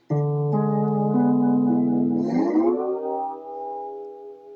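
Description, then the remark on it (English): A sustained chord rings out from an instrument in C13 tuning, its tones gliding smoothly upward midway before settling and holding steady, played alone at a moderate, even level. “It's it's in the key of A, and it's using the um, the C13 tuning, which sounds like this.”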